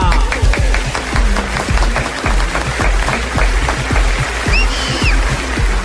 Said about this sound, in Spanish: Recibamos con un fuerte aplauso a Enrique Peñalosa.